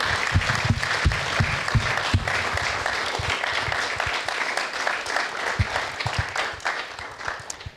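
Audience applause, a dense, steady patter of many hands clapping for about eight seconds, fairly loud and sustained before gradually thinning out at the end, with no talking over it.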